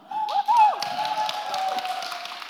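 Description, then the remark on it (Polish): An audience at a book premiere at Nowy Teatr claps in a steady patter of many hands for a couple of seconds, with a voice speaking over the applause at the start. “Jak masz oklaski na początku, to już będzie dobrze, mówię ci.”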